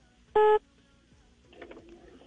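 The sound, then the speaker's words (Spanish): A single loud, steady electronic beep tone on a phone line during a listener's call from Medellín to a radio show, lasting about a quarter second, followed by faint line noise and a murmur of low background sound. “Eh, suena, raro, suena ahí como un pitico.”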